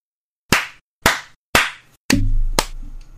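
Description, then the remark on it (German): Five sharp, loud hand claps in a steady rhythm about half a second apart, made as a marker to ease editing of a recording, with a low rumbling background creeping in under the last two. “Ich klatsch einfach, da musst du nicht so viel schneiden.”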